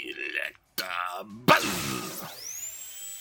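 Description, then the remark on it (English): A synthetic, game-style horn drill attack effect in a battle bursts in with a sharp attack, then spins into a whirring, rising whine that fades out, preceded by a short grunting sound. “Knocked over and then a horn drill.”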